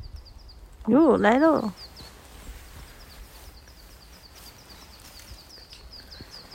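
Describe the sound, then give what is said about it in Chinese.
Many small birds all around chirp in a steady series of faint, high, quick notes that continue throughout, in a sunny spot, with a short exclamation from a person near the start. “小鸟很近吗？”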